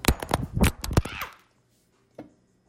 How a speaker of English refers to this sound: Oh my god. You see what that oil you, did you did you hear what that oil did? That oil caused me to drop the phone.